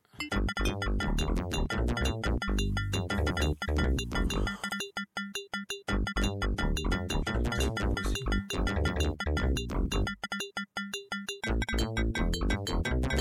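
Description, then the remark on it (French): A loud, pulsing video game theme for the game's hero, with two interlocking melodic voices in a ping-pong pattern, bright high notes bouncing back and forth over a driving rhythm, briefly thinning out twice before surging back. “Alors c'est fait, c'est fait avec deux voix, hein, avec un, espèce de principe de ping-pong dans les dans l'aigu là, hein”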